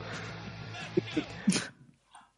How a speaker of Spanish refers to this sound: Ha escuchado algo en la calle y se ha puesto a ladrar el capullo. Encima, como tiene un, un beagle y tiene un ladrido que es brutal. a la una de la mañana me van a echar del piso.